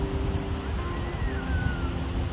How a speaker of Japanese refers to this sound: 今日は鴨川を歩きながら撮ってみたらどうなるのかやってみようと思って撮ってみてます水の音聞こえるかな今ちょうどこう川の段差で水が落ちるとこのそばに立ってるんで聞こえるかな